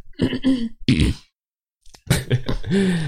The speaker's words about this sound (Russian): Так. Э, ничего, что я все время кашляю что-то. О, ничего. Прошлую неделю я все время кашлял.